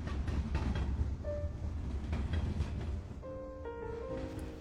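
Steady low rumble of a moving train carriage on Chinese New Year's Eve, with rhythmic rattling and clatter, joined partway through by faint high tonal squeals or whines from the wheels or brakes.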